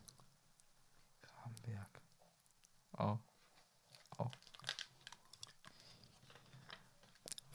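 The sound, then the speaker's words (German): Crinkly rustling of paper being unfolded, coming in several short bursts and crackles, with soft whispered voices underneath. “Oh, und falt mal auf.”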